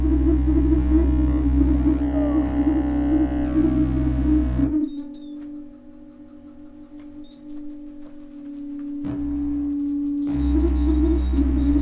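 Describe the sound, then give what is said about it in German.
Electronic sound generated from pulsing, flickering light by several light sensors and a sine generator, with more controllers turned up: a dense, buzzing drone with flickering, pulsing layers that thins to a few sustained tones midway, then swells back to full density. “das Licht auf andere Art umsetzen, zusammen mit noch einem Sensor.”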